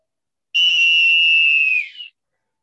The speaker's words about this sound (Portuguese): Apito final no Boleirando de hoje.